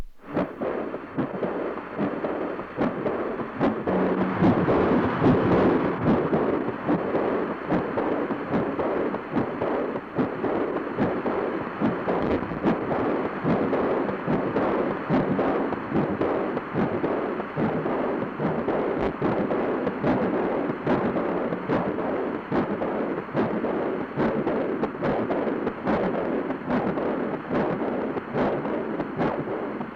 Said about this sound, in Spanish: lo que escuchamos anteriormente sería un ejemplo más o menos de cómo podría sonar este vientre materno. Esto fue como estar sumergido en un momento en este paisaje sonoro estando dentro del vientre de la madre.